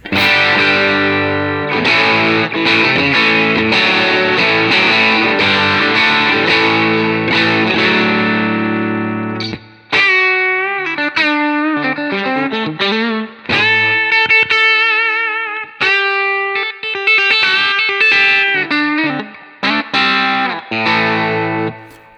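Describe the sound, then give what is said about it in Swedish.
An electric guitar played through its pickups with a little overdrive, at the same settings as before, plays loud, sustained distorted chords, then shifts to a run of single-note bends and melodic lines, with brief pauses between phrases. No one speaks. “Så här låter den då med lite drive. Samma mm. inställningar som förut.”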